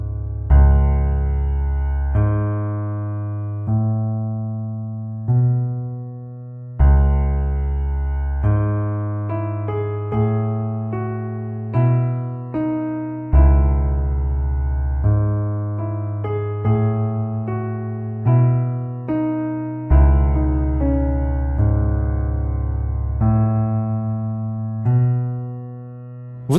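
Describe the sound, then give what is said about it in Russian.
Looping game music with a steady bass line stepping upward in repeating cycles, a bright synth melody riding over it, restarting from the lowest bass note every few seconds. No voices. “Это простая зацикленная композиция, но очень оригинально продумано взаимодействие баса и мелодии.”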